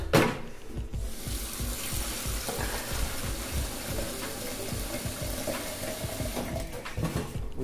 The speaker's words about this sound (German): Währenddessen hole ich mir mal Wasser, ganz normales, haushaltsübliches Wasser. Zum Glück leben wir in Deutschland, da kann man sowas aus dem Hahn nehmen, geht nicht in jedem Land.